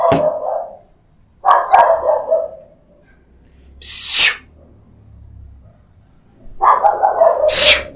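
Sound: dogs barking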